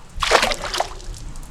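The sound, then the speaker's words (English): A single splash as a flung flask plunges into water and sinks, a bright burst of spray followed by a brief slosh that fades quickly, fairly loud with no voices. “You're going to fish it out of the water. It's sinking, Banjo.”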